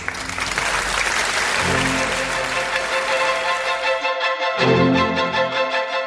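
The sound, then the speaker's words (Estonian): A crowd claps steadily in a dense, continuous wash of applause at the opening of the Eesti Kontsert programme Applaus on Kuku Radio, with sustained musical tones ringing through it; the clapping drops away after about four seconds while the music carries on. “aplaus”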